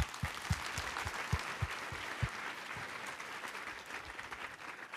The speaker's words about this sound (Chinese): 我邀请你再给耶稣一个拍拍手，好不好？